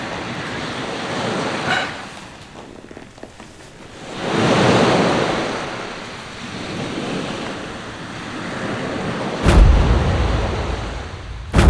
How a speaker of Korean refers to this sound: 파도 소리나 듣자. 그냥.